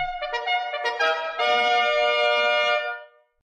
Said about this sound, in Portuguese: Me desculpe, mas essa daqui é a cornetinha vazia. A corneta canta, irmão.